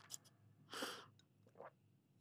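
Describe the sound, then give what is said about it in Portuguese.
Someone takes a sip of water and swallows: a short wet slurp, a few small mouth clicks, then a soft gulp, all quiet with no talking. “Vocês gostam de barulho a engolir? Eu odeio. eu odeio ouvir-me a engolir.”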